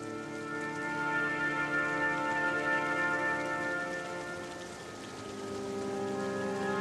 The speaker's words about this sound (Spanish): Con tu mirada fija en el suelo, observas que comienza a llover. Primero es una lluvia suave.